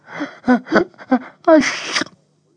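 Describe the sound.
A narrator imitates the troll Trollepus sneezing after a small red-brown animal brushes his nose with its long bushy tail: a few short, rising breathy gasps build up, then burst into one loud, hissing 'choo' that trails off into silence.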